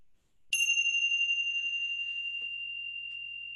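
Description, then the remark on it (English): A single bright bell strike rings out after a short silence, its clear tone sustaining and slowly fading over several seconds. No one speaks. “In a moment, I'll ring the bell three times.”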